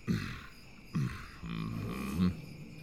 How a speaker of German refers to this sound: Und für die brülle ich so laut ich kann. Darüber freuen sich vor allem die Kinder.